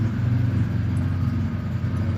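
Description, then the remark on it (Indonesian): A motorbike passing outside drones with a steady, deep rumble that holds at a fairly even loudness throughout, with no voices over it. “anjing berisik banget sih motor”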